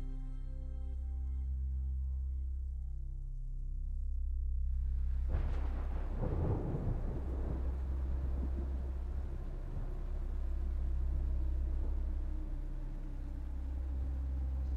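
Low sustained tones hum for a few seconds before a loud thunderclap breaks in and rolls away into rumbling, with heavy rain hissing steadily through the rest.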